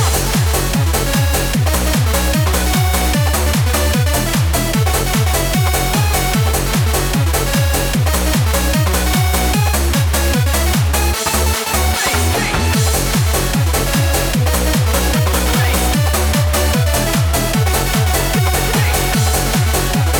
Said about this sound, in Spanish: And this is a great track.